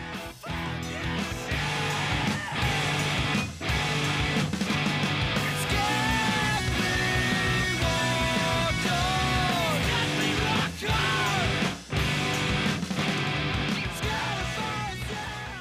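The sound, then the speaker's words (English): Loud, dense rock music with doubled electric guitars chugging out steady downstrokes while drum hits punctuate them at intervals. A sustained wavering melodic line rises over the mix midway through. “at like one minute twenty five you've got both the guitars double tracked coming in doing the downstroking but the the, the the drums are like punctuating them.”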